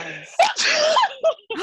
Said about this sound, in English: And then you sneeze.